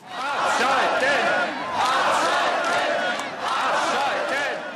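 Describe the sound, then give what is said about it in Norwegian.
A large crowd of protesters in Germany chants against nuclear power, demanding the plants be shut down, in loud, rhythmic bursts, many voices rising and falling in repeated waves with brief dips between phrases. “Steng av, steng av, lød demonstrantenes krav.”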